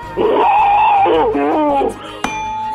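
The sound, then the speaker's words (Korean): A voice imitates boiling water in a voice-impression contest, with a loud, sustained whine whose pitch wavers into bubbly, burbling pulses for almost two seconds, ending in a short click. “물 끓는 소리입니다. 물 끓는 소리.”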